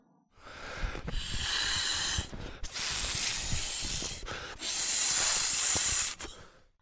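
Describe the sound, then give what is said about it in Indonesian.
A hand balloon pump pushes air into a balloon in three long, breathy hissing strokes separated by short pauses, fairly loud, with no voices. “Lalu Elo memompa balon.”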